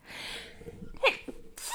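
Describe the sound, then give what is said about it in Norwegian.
A single sneeze: a hissing intake building up, then a sharp explosive burst near the middle, followed by a short breathy tail and another rush of air at the end. “Jeg må nyse, jeg må nyse.”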